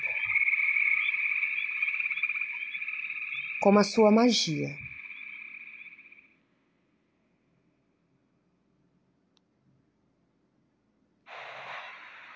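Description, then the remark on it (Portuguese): A steady, continuous frog croaking trills loudly for about six seconds, briefly overlapped by a soft spoken voice, then cuts to silence before a short burst of hissy noise. “E você vai se conectando mais e mais fundo com todas as características e potencialidades do sapo.”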